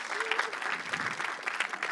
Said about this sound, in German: Applaus. Ein, noch einen großen Applaus für die.